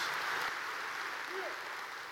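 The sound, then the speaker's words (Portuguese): A church audience claps together in steady, sustained applause to the Lord during a sermon, a dense wash of hand claps filling the space at a fairly even level throughout, with a faint voice briefly audible beneath it. “Se você crê, dê um aplauso bem forte ao Senhor, porque é verdade.”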